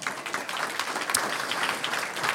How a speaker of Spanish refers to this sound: ¿Cuántos dicen gloria a Dios? Un aplauso al Señor.